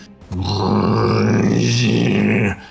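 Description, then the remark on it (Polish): A person imitates the growl of their dog, Łania: a single steady, low, rumbling snarl held for about two seconds at strong volume, with no speech around it. “I kiedy mówię Łania, zaśpiewaj, to w tym momencie mój pies zaczyna robić.”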